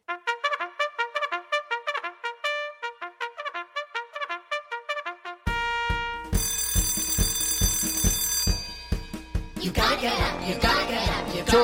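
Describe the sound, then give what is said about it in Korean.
A bell rings out in a quick, repeating melodic pattern of bright chiming tones for several seconds, clear and fairly loud, before a burst of loud music takes over. “하종이 울렸네”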